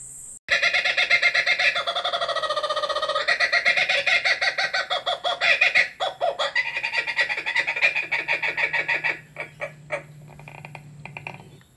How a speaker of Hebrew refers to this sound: בין לבין, תשמעו את הקוקברה וציפורים אחרות, ששרות וצוחקות בגינתי.